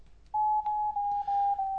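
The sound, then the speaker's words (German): A smartphone emits a single sustained electronic beep tone at a steady mid pitch whose height shows whether the phone is tilted, starting after a brief quiet moment and continuing clearly and fairly loudly, with a few faint clicks underneath. The phone is held about 30 centimetres above a document. “So, jetzt hört man einen Piepton, über dessen Höhe ich feststellen kann, ob ich das Gerät verkippt habe.”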